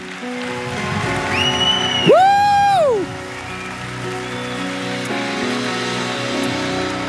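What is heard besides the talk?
audience applause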